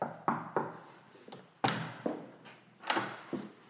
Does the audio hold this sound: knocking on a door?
yes